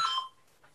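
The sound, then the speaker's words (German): A brief electronic telephone ring, a bright warbling tone that cuts off after a fraction of a second and leaves near silence, with no one talking. “Das ist das Telefon, das lassen wir jetzt mal, lassen wir jetzt mal stellen.”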